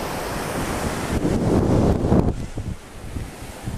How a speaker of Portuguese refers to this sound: Tá aqui no 360 de onde eu estou eu fico sempre de encontro ao vento, por causa do vento, no microfone, né?